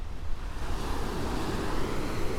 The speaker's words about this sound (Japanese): 波の音聞こえますでしょうかね